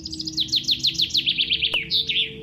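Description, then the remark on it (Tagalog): A handmade wooden bird-call whistle, made by locals, blown in a quick, steady run of about a dozen bright descending chirps, fairly loud, imitating birdsong, with no voices over it. “Parang pito? Opo, ma'am. Pito na tunog ibon po. Yari ito sa kahoy.”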